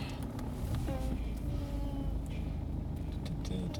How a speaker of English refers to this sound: Okay, tiddly peeps, time to go into the car wash.